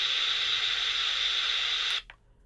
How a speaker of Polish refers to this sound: No, widzimy co widzimy, czyli... No, szumi, szumi, jeden wielki szum. Pytanie, y, Dlaczego tak? Czy jednak y, nie taka częstotliwość, czy po prostu no, ta antena jednak dość słabo nam tu działa?